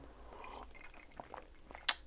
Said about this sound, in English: Sip coffee, excuse me.